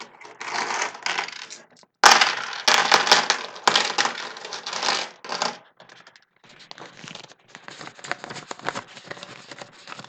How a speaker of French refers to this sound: Qu'évoque pour nous le bruit de l'argent